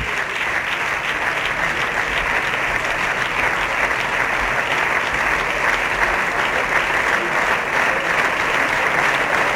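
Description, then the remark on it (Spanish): Sustained applause in parliament during the government control session, following a reply by Cuca Gamarra, a dense, steady patter of many hands clapping at an even loudness with no clear pauses or voices. “Sí, los aplausos, estamos en directo, no se ha cortado la comunicación, continúan los aplausos.”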